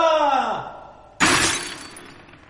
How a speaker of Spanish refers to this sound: Lo ha echado sobre estas figuritas chinas. Mire, todos los jarrones desjarronados. ¡Ah, de verdad! ¡Me los he cargado todos! ¡Y de un solo golpe!